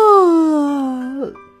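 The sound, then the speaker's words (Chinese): A person voices a single long, drawn-out yawn imitating a hedgehog, the moaning tone sliding slowly downward and ending in a brief catch and a softer tail. “这刺猬呀，一连打了好几个哈欠，眼睛里满是泪水。”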